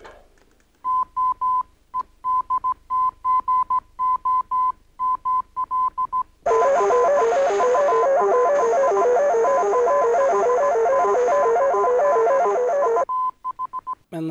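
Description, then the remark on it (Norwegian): A steady beeping tone keyed on and off in Morse code, then drowned for several seconds by a loud, warbling, buzzing jamming noise from the Germans jamming the signal, before the faint keyed tone returns at the end. “For det er det den kraftige lyden er. Det er jamminga”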